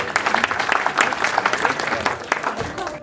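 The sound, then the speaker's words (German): An audience at a Ramadan quiz claps for a correct answer, steadily for about three seconds, a dense, even patter of many hands with a bright, crackling texture and no clear individual beats. “Super, ein Applaus bitte in die Antwort.”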